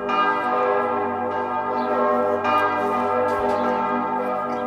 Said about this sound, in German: Das sind so Glocken, ne? Da kommt man ja, aber man muss bei Glocken muss man auch ein bisschen immer zuhören, ja. denn die Schwingung, die so Glocken auf uns wirken, die wirken in uns nach.